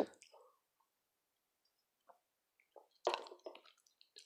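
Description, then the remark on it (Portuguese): Someone takes wet sips of a beer from the fridge, a few short slurping and swallowing sounds separated by quiet pauses, followed by a louder cluster of gulps and mouth noises. “Tomando uma verdinha aqui, uma cervejinha para tinha um ali na geladeira ali, acaba que ajuda, né, a gente procurar as melhores palavras.”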